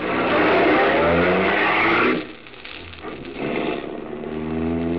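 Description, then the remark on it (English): A car engine revs hard and accelerates, its rising harmonic whine loud at first, then dropping briefly before surging again as the vehicle speeds off, with no voices. “You're almost jubilant as you run to your car. Tell Helene the good news and step on the gas.”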